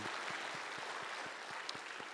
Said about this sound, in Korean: 우리 찬양과 또 우리 의 예배를 통하여서 영광 하듯이 하나님 앞에 다시 한번 영광의 박수 올려드립니다.